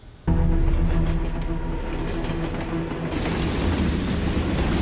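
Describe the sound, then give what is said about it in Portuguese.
A heavy freight train, one of the largest freight trains in the world, rumbles past, its loud, steady low roar of wheels on rails continuing throughout after an abrupt start, with no voices. “a jornalista Adriana Araújo e as equipes do Repórter Record Investigação seguem os trilhos de um dos maiores trens de carga do mundo para mostrar o drama de quem vive às margens da ferrovia.”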